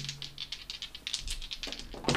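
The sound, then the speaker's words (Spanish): Two twenty-sided dice, rolled for a game character's strength and athletics check, rattle and clatter across a surface in a quick series of sharp, bright clicks, ending with a louder tumble as they settle on 11 and 13. No one speaks. “Entonces ahora vamos a tomar nuestros dos dados de 20”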